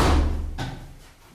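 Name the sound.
door closing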